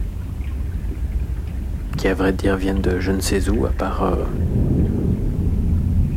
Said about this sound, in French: des moteurs euh, de bateaux qu'on entend du coup arriver de très loin, et puis peut-être des, des égouts, des écoulements, je sais pas.